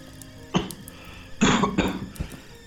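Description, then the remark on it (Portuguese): A sick person gives several harsh coughs in an uneven series: one sharp hack, then a heavier burst of two or three coughs and a final weaker one, with no talking. “Sua mãe se foi pela tosse vermelha.”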